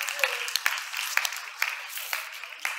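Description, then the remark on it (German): Audience applause for the people present who were born in the 1960s, a steady wash of many hands clapping at a moderate level, with a few sharper individual claps popping out irregularly throughout. “Ein Applaus.”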